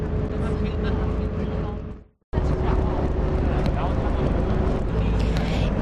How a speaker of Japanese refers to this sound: 今この車真北に向かって走っていることが分かりました北緯40度7.24、え統計108度39.31